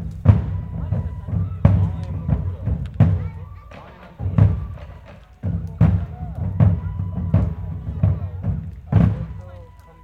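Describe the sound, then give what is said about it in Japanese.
Dance music booms at a live venue, with heavy bass thumps pulsing in a steady beat and sharp percussive hits on top, while voices murmur faintly in the crowd. “同じ会場でそういうダンスミュージックの音がね、ドーンって鳴るっていう体験初めてだったんで、そのこう、急に異界にやってきたなと、異世界にやってきたなって感じがすごくて”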